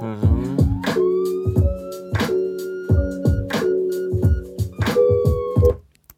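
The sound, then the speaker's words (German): A police siren tone sweeps and holds over a punchy, rhythmic music bed with repeated drum hits and layered harmonics, the wail sitting prominently in the mix of a short musical jingle. “ich habe halt gerade die Sirene gehört und dachte so irgendwie, an der Stelle könnte die Sirene irgendwie so ein bisschen staccato-mäßig sein”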